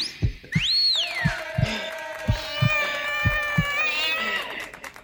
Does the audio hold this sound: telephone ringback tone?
no